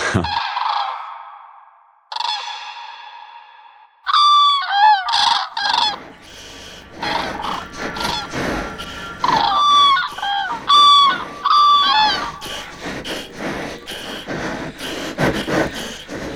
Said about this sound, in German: Der Krane. Megalornis groß, groß ist ein ebenso scheuer als stattlicher Vogel, mit gravitätischer Haltung und viel vornehmer Eigenart, so dass dem Ornithologen das Herz höher schlägt, wenn er ihn vor sich sieht.